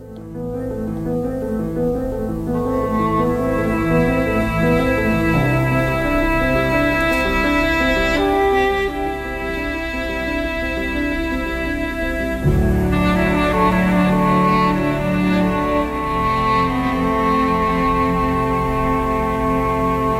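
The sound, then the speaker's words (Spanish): A sweeping orchestral film score plays steadily with sustained, layered strings and brass-like tones, shifting to a fuller, heavier passage partway through; loud and continuous, with no voices. “Vamos a escuchar parte de una de ellas para introducir esta conversación que vamos a tener eh, a continuación con un gran invitado en esta tarde aquí en Aire Fresco.”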